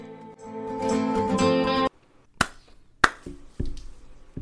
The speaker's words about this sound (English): Two claps. Two claps is enough claps that's that's good.